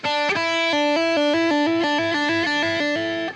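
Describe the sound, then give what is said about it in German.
A distorted electric guitar is picked once, then a quick series of legato hammer-on notes, made only with the fretting finger, steps up and down without new attacks, sustaining smoothly and fairly loud on its own. “ich äh, habe jetzt einmal angeschlagen, aber die Töne danach, die waren einfach nur den Finger einmal raufbauen.”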